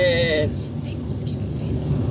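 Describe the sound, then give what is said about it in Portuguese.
A SAMU emergency ambulance siren wails briefly at the start on a rainy day, its tone sliding downward as it passes outside through traffic, then fades into a steady rumble of road traffic. “é óbvio que isso vai acontecer, é um cenário que a ambulância aqui cortando a vida de todo mundo. Isso é o SAMU, na verdade.”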